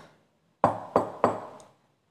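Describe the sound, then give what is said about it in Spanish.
Three firm knocks on a wooden door, evenly spaced about a third of a second apart, fairly loud with a short resonant ring after each. No one speaks. “Pronto escuchó que tocaban la puerta.”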